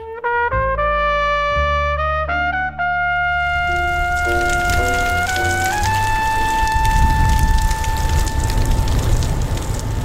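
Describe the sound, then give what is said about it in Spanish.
Steady rain falls on a cold Monday in Madrid with a dense, crackling patter that fades in after a few seconds and grows fuller, while sustained musical tones ring on top throughout. No voices are heard. “La lluvia y un frío intenso eh, te acompañaron este, este lunes, Pablo de Llano, cuando hiciste un recorrido por alguno de los cementerios, de los sanatorios eh, y de los crematorios de, Madrid en una de las semanas más negras de nuestra historia.”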